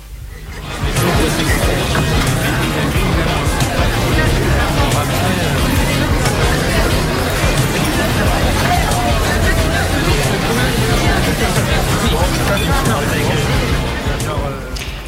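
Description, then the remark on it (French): A steady hubbub of many people talking at once, overlapping conversations as a group gathers to eat lunch around 1 pm, continuous and fairly loud throughout with no single voice standing out. “Les discussions du midi se dispersent au tintement de la vaisselle et chacun, chacune retourne à ses activités.”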